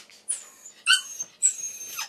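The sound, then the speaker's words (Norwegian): A black standard poodle, sedated and lying on the operating table at a veterinary clinic in Oslo, Norway, before its suspicious molars are examined, whimpers in a few high-pitched, thin whines, three short bursts with brief pauses between them and no talking. “Den sorte kongepuddelen er slapp i blikket der den ligger på operasjonsbordet på Nordberg dyreklinikk i Oslo.”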